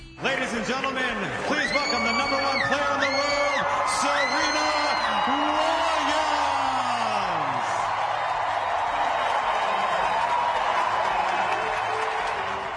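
A huge crowd in a tennis stadium roars in a sustained ovation as a player returns after 14 years, walking out of the locker-room tunnel toward her chair, with rising whoops, shouts and whistles piercing a dense wall of cheering and applause that stays loud from start to finish.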